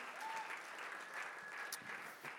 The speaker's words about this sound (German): Lass uns mal den Erlangern einen riesen Applaus geben. Die sind hammermäßig.